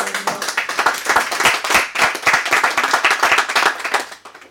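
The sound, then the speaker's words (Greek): A small group claps steadily for a few seconds to welcome someone called up to demonstrate, a dense patter of overlapping hand claps that stays fairly loud before tapering off at the end. “Δώσε ένα χειροκρότημα”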